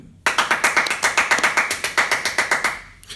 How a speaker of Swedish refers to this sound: Jajamän, och veckans sponsor är vår eh, publik faktiskt som har suttit här och lyssnat och gör lite ljud ifrån sig eh, nu.